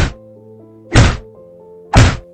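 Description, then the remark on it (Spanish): Three heavy, dull punches to a man's stomach, thrown by young university students in Montreal, Canada, in 1926, land about a second apart, each a loud thudding smack against the body, with a faint low droning tone sustained underneath. “En 1926, en Montreal, Canadá, unos jóvenes universitarios le desafiaron a ver si era capaz de aguantar unos puñetazos en el estómago.”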